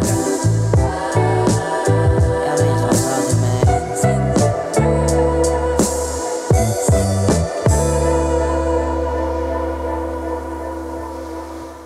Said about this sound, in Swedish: En låt? Ja, ska vi ta, en, ta en, låt? en låt?